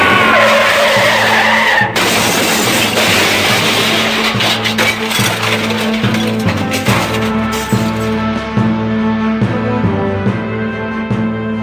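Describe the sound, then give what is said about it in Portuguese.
A car skids and spins out after a collision, a loud long screech of tires over roaring engine noise, the skid sustained for several seconds before easing into a rougher, rumbling slide. “Miserável bateu está rodando!”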